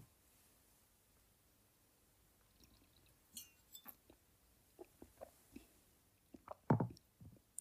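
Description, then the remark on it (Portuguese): Quiet sounds of someone drinking water from a glass: a few light clinks and small liquid movements, then several soft gulps and swallows near the end, with no talking. “Isto foi para beber água, malta.”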